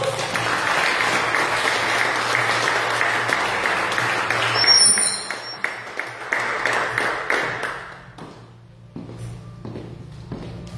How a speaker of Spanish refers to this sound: Den un aplauso al Señor, por favor.